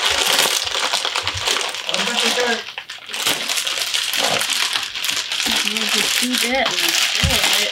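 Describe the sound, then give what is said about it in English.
Loud crinkling and tearing of paper packaging that runs almost continuously, with brief pauses, as a parcel is pulled open; voices talk faintly underneath. “So one of the one of the only good things happened this week is that we got this package. Um, here it is. So do the honor. I think I need scissors.”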